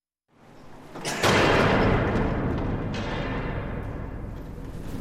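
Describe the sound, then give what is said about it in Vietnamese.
A very large iron door into exhibition room 3, which recreates the confinement space of the poet Yun Dong-ju, is pushed hard to open it: a low scraping groan builds, then a loud booming clang, followed by a long, deep rumbling resonance that fades slowly. No one speaks. “Tuy nhiên, để bước vào phòng trưng bày số 3, ta lại phải một lần nữa đẩy mạnh cánh cửa sắt thật lớn để bước vào.”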